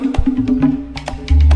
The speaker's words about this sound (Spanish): los negros también llegaron a la República Dominicana y se inventaron el merengue con la tambora que suena así. Suena, suena la tambora.